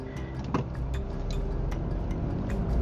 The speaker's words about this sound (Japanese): 今朝はね、冷風ですもんね、朝から。もう、冷ややかな風が今、車の中、車内をこうね、